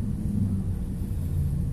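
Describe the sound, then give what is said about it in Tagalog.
A steady low rumble and hum of road noise fills the cabin of a car driving home in traffic, continuous and fairly loud, with no voices over it. “Maingay sigurado sa background ko. Kasi nga, nasa kalsada ako nagre-record”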